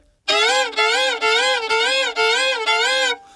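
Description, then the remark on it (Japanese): A performer doing a vocal impression act imitates twin babies crying at once: five or six loud, wavering wails in a steady rhythm, thick and layered, with brief breaths between each cry. “重なりましたねちょっと音がね太くなりました”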